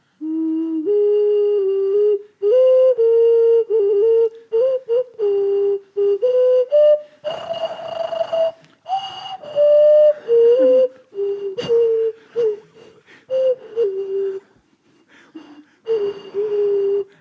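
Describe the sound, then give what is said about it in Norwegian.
Someone whistles a wavering melody, sliding between sustained notes with short breaks, mixed with airy, breathy bursts as air is drawn in mid-tune, a deliberate trick of taking in false air. No talking. “Hvis du, du eh, gir han en tone.”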